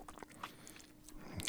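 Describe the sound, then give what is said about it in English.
Quiet mouth sounds of someone sucking on a hard peppermint candy stick, with a few sharp, irregular crunches and wet clicks, no talking. “I can't suck on it while I'm talking because then I sound like this.”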